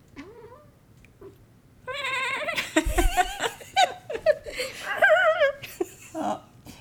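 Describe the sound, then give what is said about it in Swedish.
A female cat sitting in a window, watching a bird, chatters in quick, stuttering chirps and squeaky trills, fairly loud, in a run of bursts lasting several seconds after a quiet start. “Ja, nu har vi en katt som sitter i fönstret och jag tror att det är så att hon ser en fågel.”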